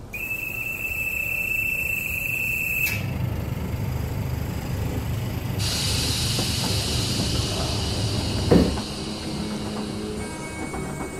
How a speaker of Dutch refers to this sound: De trein waarin ze zitten wiegt langzaam heen en weer en zo schommelen ze zich zachtjes door het vlakke Zeeuwse land tussen Vlissingen en Middelburg.